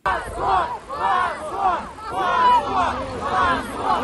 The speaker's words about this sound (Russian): У стены скорби на проспекте Сахарова в Москве полицейские задерживали людей и волокли их к автозакам. Задержания сопровождались криками «позор» от пришедших на акцию людей.